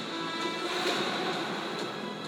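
A steady, dense wash of ocean waves rolls on without pause, with faint swells rising and falling, and no voices.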